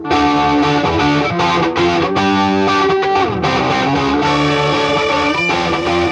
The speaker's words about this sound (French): On va essayer avec le vrai ampli pour voir. Il y a un peu plus de disto, mais je préfère comme ça. Allez, on met l'ampli à fond maintenant.